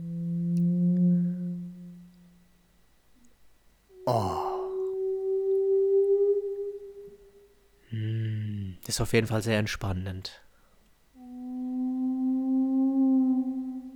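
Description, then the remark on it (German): Whale song heard underwater while diving: long, drawn-out tonal moans with rich harmonics rise and glide in pitch, alternating with a few short spoken remarks in between. “Und dann hören wir jetzt hier unten die Wahlgeräusche.”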